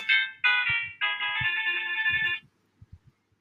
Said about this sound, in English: Sorry about that. I have my phone ringing.